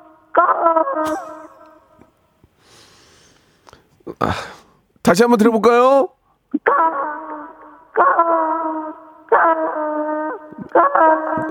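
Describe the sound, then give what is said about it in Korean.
A fourth-grade child calling in by phone to a crow-imitation contest imitates a crow's caw in a series of loud, drawn-out, nasal calls repeated in quick succession, with brief adult speech and a noisy burst between them. “자, 어린이 까마귀 들어봅니다.”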